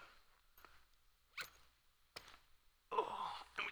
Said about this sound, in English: And we take it, and we put it in there, and we zip it up